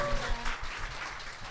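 A crowd breaks into applause for an audience member receiving a Big Green shampoo set as a quiz prize, a dense, steady wash of many hands clapping at once, with a faint tonal hum fading out in the first half-second.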